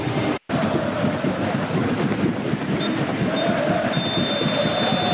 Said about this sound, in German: Und jetzt ist auch diese Minute um. Der Applaus und die Standing Ovation ist da.